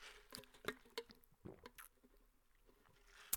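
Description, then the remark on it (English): A wet drinking sound: several quick swallowing clicks and a big, louder gulp in the middle, with liquid sloshing. No one is talking. “you know like i don't know if you heard that big gulp you know stuff like that.”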